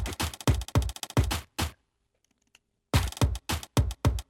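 Crunchy plastic bottle hits layered into a looping beat with other percussive clicks, a quick steady pattern of sharp strikes, a brief silent break, then the rhythm returns; no voices.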